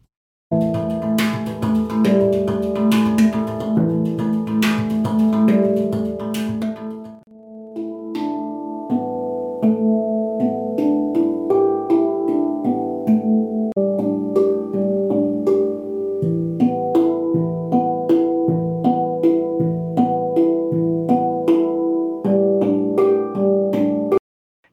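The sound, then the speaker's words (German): A handpan is played alone, recorded by a camera's microphone: a steady melodic stream of struck, ringing metallic notes that overlap and sustain, at a fairly loud level, with a brief pause partway through. “Aber jetzt haben wir erstmal die Handpan und wir gucken und hören mal ganz kurz in die Originalaufnahmen rein.”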